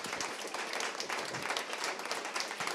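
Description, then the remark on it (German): A crowd applauds steadily, a dense wash of many hands clapping at an even, fairly loud level throughout with no voices standing out. “ähm, ja, vielen Dank für Ihr Hiersein und jetzt bitte nochmal einen ganz herzlichen Applaus für alle.”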